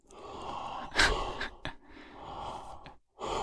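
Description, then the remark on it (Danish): A voice imitates the heavy, noisy breathing of someone playing guitar: several long, rasping breaths in and out, with a sharp gasping intake near the start and brief pauses between breaths. “Og så bliver min vejrtrækning, den bliver sådan her.”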